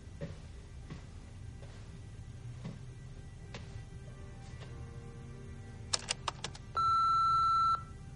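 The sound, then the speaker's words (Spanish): An answering machine gives a few quick clicks as its buttons are pressed to play back messages, then a single steady, mid-pitched beep lasting about a second, over a quiet background. “Tras unos instantes, John camina lentamente hacia el contestador y escucha los mensajes.”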